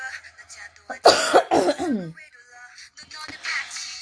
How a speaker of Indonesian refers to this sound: aku batuk, aku masih batuk gengs